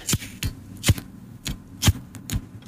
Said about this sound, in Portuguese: O isqueiro. O isqueiro é Para toda a gente percebeu que era o isqueiro. Eu queria dizer-vos que eh, o som que ouvimos foi a banda que fez. Eh, eh, com o isqueiro, sim.